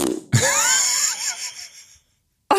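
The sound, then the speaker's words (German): A voice imitates a loud fart made by a man standing in front of the speaker at a checkout: one long, raspy, buzzing blurt lasting over a second, wavering in pitch before cutting off into a brief silence, with no words spoken. “Und zwar noch nicht mal so, wie ich es jetzt gerade erklärt habe, so einen leisen, sondern das, er furzt einfach äh, laut. Ich stehe halt hinter ihm und, und es macht so.”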